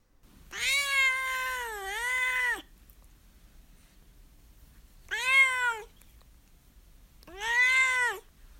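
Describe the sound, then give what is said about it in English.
A cat named Duarte meows three times with pauses in between: a long, drawn-out first meow followed by two shorter ones, clear with no talking. “All right, now it is time, of course, for Duarte's Corner, where my cat Duarte will share his two cents about the book.”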